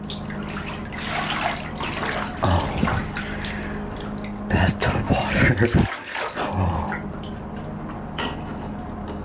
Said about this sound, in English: Oh. Loud ass faucet.